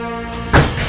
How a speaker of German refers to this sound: Wir öffnen jetzt die Tür, wir gehen jetzt mal rein.